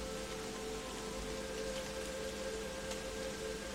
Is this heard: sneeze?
no